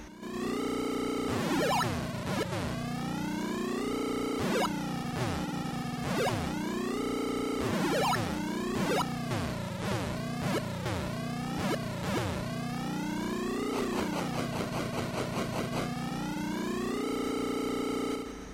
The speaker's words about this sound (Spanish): Eso, el eso es porque está yendo sobre el, pasto, ¿no? Y hay que, hay que direccionarla a la moto directamente, ¿no?